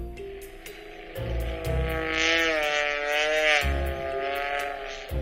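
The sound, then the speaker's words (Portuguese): A biplane's droning propeller engine, played by Google Assistant when asked for an airplane sound, holds a steady buzzing tone that swells and wavers slightly in pitch for several seconds, with faint ticking underneath. “Isto é um biplano.”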